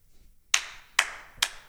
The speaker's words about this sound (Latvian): Valsts prezidents pieceļās šajā brīdī kājās un aplaudē.